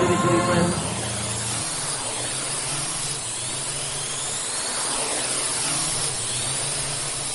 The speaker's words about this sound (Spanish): Así suena Cora, el prototipo fabricado por la empresa Kitty Hawk y que será probablemente uno de los primeros coches que veamos volar como vehículo utilitario urbano.